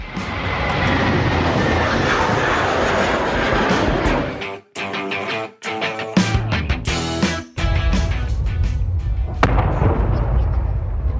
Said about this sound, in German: Ja, lautes Knallen, danach bedrückende Stille. So hört sich Krieg an. Die Tonaufnahmen gehören zu unter der Woche gedrehten Videos aus Nordsyrien, die im Moment im Internet kursieren.